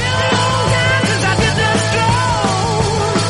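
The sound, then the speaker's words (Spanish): A loud, dense rock recording from the 1970s driven by sharp, evenly spaced snare drum cracks that punch through distorted guitars, with no one speaking. “mira qué caja, mira cómo suena.”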